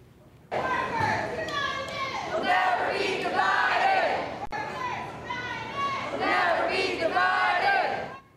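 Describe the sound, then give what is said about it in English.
A crowd of flight attendants from major airlines, including Southwest, United and Alaska Airlines, chants and shouts together at a rally at the Honolulu airport to push for higher pay, loud, in steady rising and falling bursts that continue for several seconds without pause. “Meanwhile, flight attendants for major airlines, including Southwest, United, and Alaska Airlines, held rallies at the Honolulu airport and across the country to push for higher pay.”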